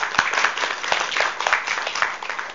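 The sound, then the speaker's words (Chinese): An audience claps steadily together to welcome a professor from East China Normal University at the fourth lecture of a modern Chinese figures and history lecture series, a dense patter of many hands forming a continuous crackling wash at an even, moderate loudness, with no voices. “好，我们先以掌声。”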